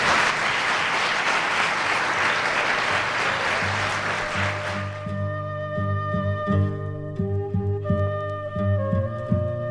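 A burst of dense, steady clapping from a crowd fills the first half, then fades out as a tonal musical jingle with sustained notes takes over. No one speaks.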